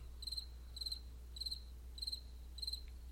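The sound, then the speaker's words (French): A cricket chirps in steady, evenly spaced bursts, about five trills in three seconds, clear against an otherwise quiet background with a faint low hum and no voices. “Vous savez, le fameux silence où personne ne réagit.”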